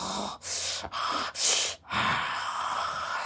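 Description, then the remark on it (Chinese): A person imitates, in the throat, the guttural growl an animal makes just before it roars: a string of harsh, breathy rasps, four short bursts followed by one longer, sustained rasp, with no words spoken. “比如说，你觉得特别的，就是那种憋在心里面的那种愤怒，就很多的，你想到一些傻逼的事情、一些人，你就发出那样在喉咙里面，就是 动物的即将要狂吼一句的之前的那那一个声音”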